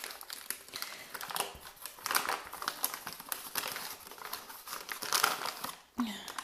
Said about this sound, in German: Es knistert jetzt kurz, ich muss die Zuckertüte mal aufmachen.